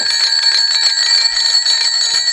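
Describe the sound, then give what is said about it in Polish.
A phone rings as a friend calls, with a bright, trilling electronic tone that stays steady and fairly loud for the whole stretch, with no voices over it. “A, to dzwonimy kolega.”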